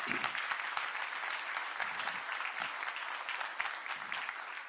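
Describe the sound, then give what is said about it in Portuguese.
A crowd at a sermon claps steadily for several seconds in applause for the Lord Jesus, a dense, sustained wash of applause from many hands, with no one speaking over it. “Dá uma salva de palmas ao Senhor Jesus.”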